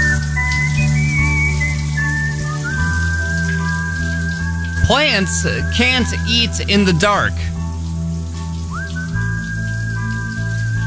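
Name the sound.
running shower water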